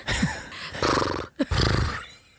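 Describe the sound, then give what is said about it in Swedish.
A person imitates a horse's brr snort with loud, fluttering lip-trill bursts, several rough sputtering blows in quick succession, forceful, with no talking. “Brr, tror jag hästen säger.”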